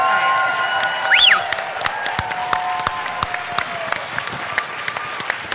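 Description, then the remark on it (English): A sustained standing ovation from a large church audience for Dr. Judy Mikovits, dense rapid clapping with occasional sharper claps standing out, with a few whistles and cheers rising briefly over it, steady and loud throughout. “Yeah, I think a standing ovation is necessary here.”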